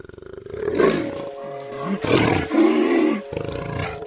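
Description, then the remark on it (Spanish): A jaguar, the largest cat of the Americas, living in the Amazon, roars in a series of deep, rasping, growling bursts, loud, with brief pauses between the calls and no talking. “Lo que acabamos de escuchar no es precisamente la señal de esa amenaza, sino el rugido del jaguar, el felino más grande de América que habita en nuestra Amazonía.”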